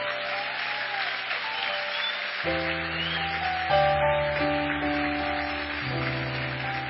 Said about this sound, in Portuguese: Pode aplaudir a ele.